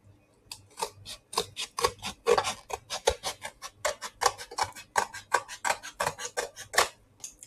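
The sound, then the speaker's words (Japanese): Scissors snip steadily through a Smart Letter paper mail envelope holding a surprise gift, a rapid series of about twenty crisp cuts in an even rhythm, with no talking over them. “なので、ハサミをね、えー、早速入れていきたいと思います。”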